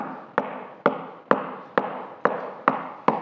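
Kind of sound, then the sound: impact, knocking on a door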